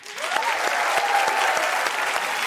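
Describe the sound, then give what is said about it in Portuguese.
A large audience applauds steadily as two musicians are welcomed onto stage, with dense, continuous clapping that stays loud and even throughout, and a faint cheer carries through the noise. “para homenagear … no aniversário de 30 anos de sua morte, recebam e aplaudam ….”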